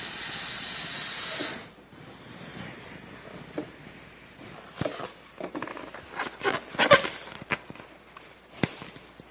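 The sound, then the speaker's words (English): A steady, loud hiss of gas rushing from a tank into a balloon for a couple of seconds, then quieter rustling with scattered sharp crackles and squeaks of stretching rubber. “It was filled with what was inside this tank.”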